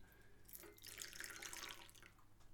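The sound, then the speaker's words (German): Hot tea pours into a cup with a soft, hissing splash, and faint crackling comes from the sugar crystals inside. It is quiet, with no one speaking. “Ich hoffe, ihr hört das Knistern”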